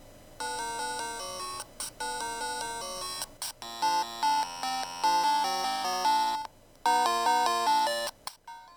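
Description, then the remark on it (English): The original Game Boy Tetris theme playing alone as bright, buzzy chiptune notes in a quick steady melody, sounding thin as if a channel is missing, with a few brief pauses and a steady volume. “you can play all kinds of games on it, like uh, the original Game Boy Tetris, but the sound's a little off”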